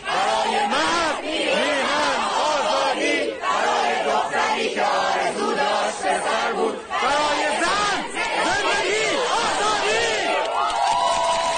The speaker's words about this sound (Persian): اما این فریادها و همخانی ها محصول چیست؟